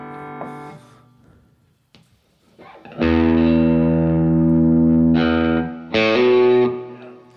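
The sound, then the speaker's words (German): Clean-toned electric guitar through a Fender amp: a few soft picked notes, then loud strummed chords that ring and sustain, followed by two more sharp chord hits close together. No talking. “Äh, müssen wir erstmal den Fender auspacken.”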